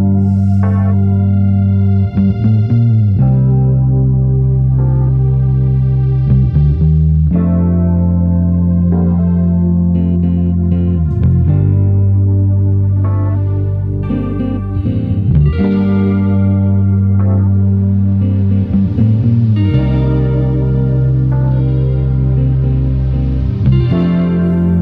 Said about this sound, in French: Un petit synthé en plus. Et voici de la guitare pour euh, rajouter un petit peu de son.